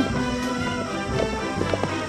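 Horse hooves clip-clop in a quick, steady trot over a busy, dense background, the hoofbeats moderately loud for about two seconds.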